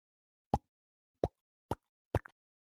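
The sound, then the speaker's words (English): Four sharp, hollow mouth pops made by a voice imitating a hip popping out, evenly spaced across a few seconds, fairly loud in quiet, the last one trailing a small extra click. “It just popped right out.”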